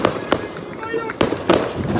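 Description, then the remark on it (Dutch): Several sharp firework bangs set off by football fans crack out at irregular intervals over an outdoor crowd murmur, five minutes before a match, in soaking rain on a small hill behind the railway, with faint voices talking and a bright crackle trailing after the louder pops. “Wordt inmiddels door de harde wat vuurwerk afgestoken.”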